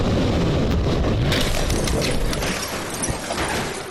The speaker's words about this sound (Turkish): Hatay'dan feci bir kaza görüntüsü. Hatay'da freni boşalan vinç adeta ölüm saçtı. 11 araca çarptı. 4 kişi hayatını kaybetti. 6 kişi de yaralandı.